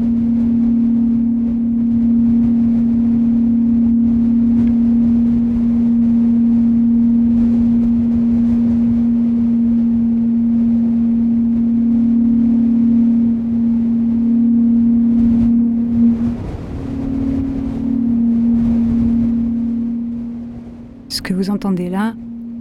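Wind moaning through pipes in Bolivia makes a steady, hollow low drone with a breathy rush. It holds loud and unbroken for about twenty seconds, swells slightly, then dips before a brief wavering whistle at the end.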